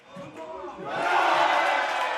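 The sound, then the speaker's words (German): Pub crowd watching Germany play a World Cup match chatter briefly, then break into loud cheering that swells after about a second and stays at a sustained, noisy roar. “Deutschland dominiert, es gibt aufregende Szenen und Applaus. Die Kneipe klingt, als wäre es eine ganz normale WM.”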